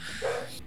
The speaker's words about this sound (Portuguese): Peço desculpas pelo meu cachorro, inclusive, que ele também não está levando em consideração.